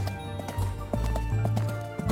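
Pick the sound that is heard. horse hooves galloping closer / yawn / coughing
horse hooves galloping closer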